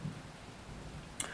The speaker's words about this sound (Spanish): Si escuchan de fondo algún ruidillo, es que está lloviendo a cántaros. Esperemos y, calme pronto.